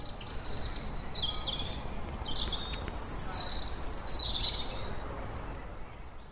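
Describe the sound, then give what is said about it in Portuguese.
Birds chirp and warble outdoors in London at 9:15 in the evening, still light on a pleasant day with people on the street, a string of bright, high calls repeating over several seconds against a steady wash of background noise, not loud. “Não sei se vocês estão conseguindo perceber, mas nesse momento, enquanto eu gravo, são 9 horas e 15 minutos aqui em Londres, Ainda está claro, um dia muito agradável e tem gente na rua, até os passarinhos ainda estão de plantão.”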